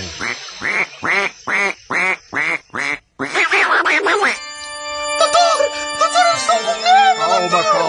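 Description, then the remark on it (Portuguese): A duck quacks loudly, about seven quick, evenly spaced quacks, then a busier stretch of overlapping quacking mixed with bright, ringing electronic tones. “Sua mãe, mamãe Benedita Jackson, entra em trabalho final de pato.”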